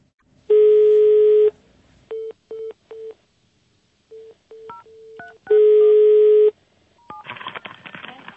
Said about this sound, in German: Und dazu möchte ich jetzt mal in der Republik anrufen.